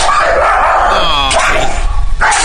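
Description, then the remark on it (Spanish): A dog yelps and whines in sharp, high-pitched cries as a man hits it with a pipe in his garage, loud, with a rough, noisy background throughout. “está en su cochera y a través del zaguán una muchacha ve que está pegándole a su al perro del señor con un tubo.”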